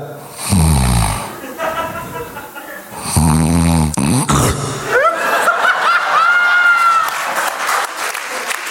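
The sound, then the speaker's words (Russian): A man's voice imitates the loud, rasping snoring a man develops after gaining weight, in two long snorts a couple of seconds apart, followed by a crowd laughing and clapping. “Там, знаете, когда ты поправляешься, у тебя появляется такой интригующий храп.”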